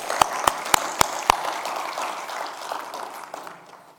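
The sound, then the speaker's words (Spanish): A church audience applauds the Lord for his word: a dense patter of clapping with five loud, evenly spaced claps standing out at the start, then the crowd's applause gradually thins and fades away. “Dale un aplauso al Señor por su palabra.”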